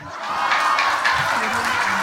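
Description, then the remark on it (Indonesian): A crowd applauds steadily at a stand-up comedy show, dense clapping with a few faint cheers mixed in, loud and sustained for the whole moment. “Tapi tepuk tangan untuk stand up komedi.”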